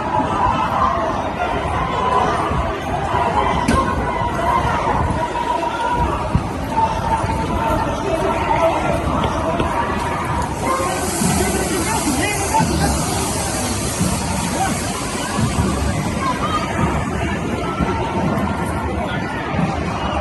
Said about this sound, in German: Also vorhin zu dem Polizeivideo aus China. sieht schon überall das Tränengas. Leute werden auseinandergetrieben von der Polizei.